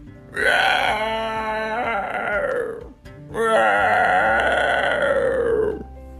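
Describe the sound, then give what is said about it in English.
A voice imitates a dragon with two long, loud, throaty groaning roars, each lasting a couple of seconds, separated by a brief pause and trailing off at the end. “That was definitely a dragon sound.”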